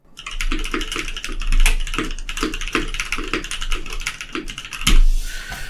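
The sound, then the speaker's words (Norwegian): Rapid, continuous typing on a computer keyboard, with crisp clicky keystrokes in quick bursts and a slightly louder key strike near the end. No one speaks. “Det er det dummeste jeg har sett i hele mitt liv, skrev jeg det.”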